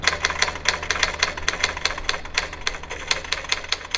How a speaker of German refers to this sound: Die Schreibmaschine ein Sound, der wirklich verschwunden ist. Den nutzt keiner mehr und da kann kein Kind heute mehr was mit anfangen.